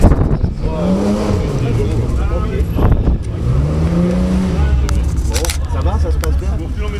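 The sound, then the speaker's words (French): The engine of a 512 race car rumbles as the car arrives and parks, its pitch swelling and falling in two revving surges before settling into a steady idle, with a voice talking faintly underneath. “Alors que je vois déjà la, 512 qui est prête hein, ce se parquer. Donc, euh, belle arrivée.”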